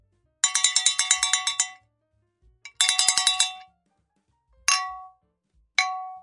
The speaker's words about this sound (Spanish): Para evitar esto, los niños ponen sus dientes en una lata y la sacuden para asustarlo, tipo un cencerro.